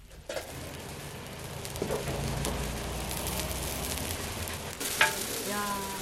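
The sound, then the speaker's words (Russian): Steady crackling sizzle of thick mung bean pancakes frying in hot oil, continuous, with a few clinks and scrapes of a utensil against the pan, as a woman over 80 cooks them in the kitchen of a pancake eatery. “На кухне пожилая женщина, которая уже за 80 жарит толстые аппетитные блины из Маша Нуктучон.”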